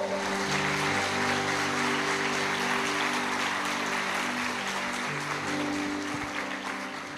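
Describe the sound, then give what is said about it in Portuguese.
An audience applauds the Lord steadily for about seven seconds, a dense crackle of many hands clapping over sustained low keyboard chords, fading slightly at the end. “Aplaude ao Senhor, por favor.”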